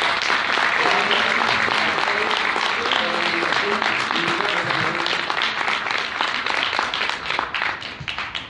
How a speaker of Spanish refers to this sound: Antes de esto, para contarte esta historia, quiero agradecer a un grupo de gente especial, y es a los líderes de aquí en tu ciudad del Carmen, por favor, denles un fuerte aplauso.